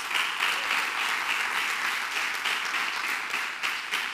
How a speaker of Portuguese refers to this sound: Há um aplauso aí.